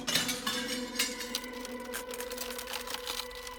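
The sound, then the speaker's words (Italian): A sharp blow of a fist against a glass mirror, followed by a run of crisp cracking and tinkling as the mirror splinters, moderately loud, with no voices. “E dalla rabbia colpì il vetro con un pugno.”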